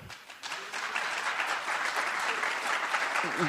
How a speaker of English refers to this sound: I, I think uh, let's try to hold down the applause as we go along during the debate because that'll allow for more questions.